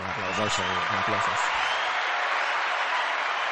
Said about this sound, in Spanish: Dale ahí a un... Eh, un aplauso.